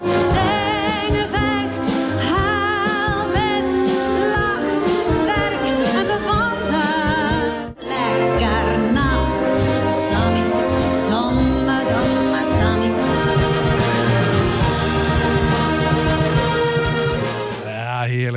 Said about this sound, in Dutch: Fantastisch is dit. Ehm, dit was overigens niet Shot, dit was een andere, een, een andere harmonie.